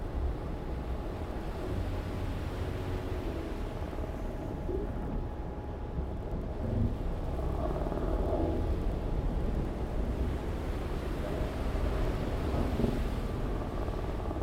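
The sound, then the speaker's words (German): A dense, continuous roar of whistling wind and crashing waves at sea in thick fog, with a snowstorm raging in the clouds, loud, swelling in surges, with a faint thin whistle riding over the rumble. No voices. “Pfeifender Wind. Tosende Wellen, die alles verschlingen.”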